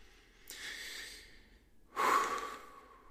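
A deep, audible breath drawn in, followed after a short pause by a louder, rushing breath out. No one speaks.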